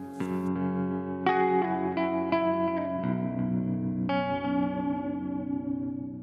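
Sustained, effects-drenched guitar music with shimmering chorus, echo and reverb, chords swelling in layered waves over a steady low drone; an atmospheric instrumental passage with no voices.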